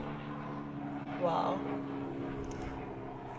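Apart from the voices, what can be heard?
helicopter flying overhead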